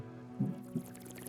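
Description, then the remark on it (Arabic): A creature in a supermarket drinking blood greedily: two short, low, wet slurping gulps about a third of a second apart, over a steady low hum with no one speaking. “وبعدين صمت وبعدين صوت شيء بيشرب بنهم”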